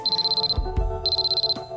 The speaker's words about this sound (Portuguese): A parte mais gira, aquilo tem um alarme, ou seja, se de repente ficamos com febre, vamos supor, estamos a meio de uma reunião, não é?